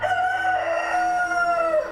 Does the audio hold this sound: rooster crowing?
yes